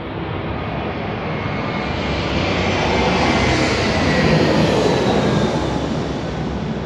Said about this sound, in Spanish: Hay otro avión, otro avión, otro shot.